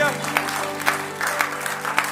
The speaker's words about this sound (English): Let's clap your hands to the Lord.